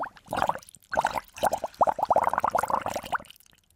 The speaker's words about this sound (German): Dieses Blubbern, das denken wir ja schon, oder? Ja, wenn da Gas rauskommt, dann muss es doch blubbern, also, denke ich. Vielleicht lassen wir das mal überprüfen.